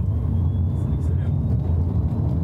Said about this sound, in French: Je vais tenter une accélération forte pour voir ce que ça donne.